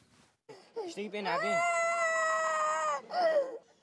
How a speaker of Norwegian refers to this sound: Ei lita jente skriker ut i smerte idet en lege undersøker de opphovnede, såre føttene hennes. Jenta som tilhører den religiøse minoriteten jesidi, har gått langt for å slippe unna IS, også kjent som ISIL. Nå har hun kommet frem til en flyktningleir.